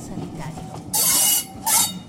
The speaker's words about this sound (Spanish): marcha el tren sanitario hacia la zona de los ingenios, donde las tareas de la zafra azucarera determinan la concentración de grandes masas laboriosas.